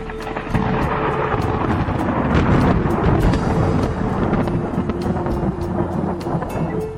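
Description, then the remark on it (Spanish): A thunderstorm with heavy, steady rain and deep rolling thunder that rumbles on without a break, loud, with no one speaking. “En eso la lluvia, los truenos y los relámpagos pusieron dramatismo a su desesperado accionar.”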